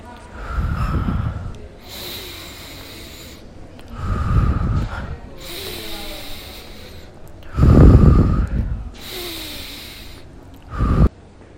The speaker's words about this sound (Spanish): Desabronte para usar el cetoscopio y escuchar tu respiración. Bien, inhala y exhala fuerte.